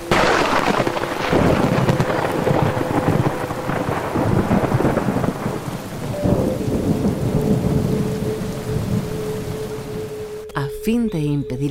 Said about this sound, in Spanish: Y si algún intruso se acerca a ese lugar, provoca tempestades eléctricas con feroces truenos y violentos aguaceros.